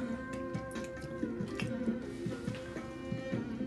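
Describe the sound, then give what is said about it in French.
Wet chewing noises repeat in a steady rhythm, soft smacks and squishes of gum being worked in the mouth by a bored-looking Oni at an office counter, blowing bubbles now and then, over a faint background hum, with no talking. “Elle mâche un chewing-gum, faisant des bulles de temps en temps.”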